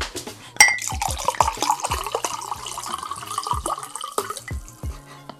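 Wine glugs and splashes steadily into a 0.5-litre mug for about five seconds, with small clinks and drips along the way and no one talking.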